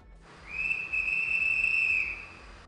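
A single sustained whistle blast, shrill and steady, holding one high pitch for about a second and a half before cutting off, heard alone over a low rumbling background.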